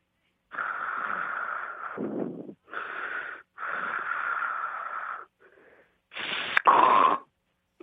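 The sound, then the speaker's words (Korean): A voice imitates a dozing bus passenger startled by the door opening: several breathy, wheezing hisses of varying length, then a louder final burst with a sharp click in it. “아, 그러니까 버스에 승객이 타고 있었는데 버스 문 열리는 소리에 놀라는 소리다 이거죠?”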